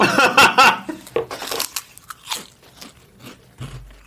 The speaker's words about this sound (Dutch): letterlijk, we gaan recorden je, gaat, je doet een hap in je mond.